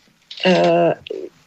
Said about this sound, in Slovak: niekde mi to tu na zúči telefónik